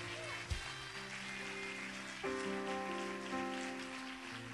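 An audience claps steadily for Jesus, a dense, continuous crackle of many hands, with held musical chords sounding underneath and shifting a couple of times.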